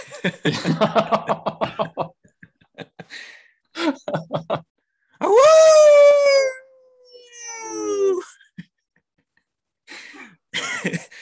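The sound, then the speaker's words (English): A person imitates a wolf howl, a loud rising then long falling vocal wail, preceded by coughs and throat clearing and followed by a shorter, fainter howl and brief vocal noises. “it's my wolf howl”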